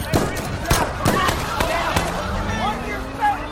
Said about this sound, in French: L'embrouille monte alors d'un cran quand des coups de feu retentissent sur le parking.